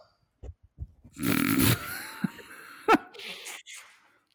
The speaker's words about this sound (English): Well, I'm going to blow my nose.